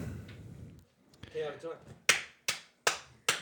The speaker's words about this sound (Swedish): Klappar du? Vad gör du?